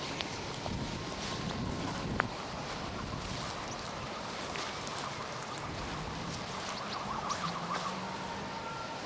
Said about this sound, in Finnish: ambulanssi ujeltaa taustalla.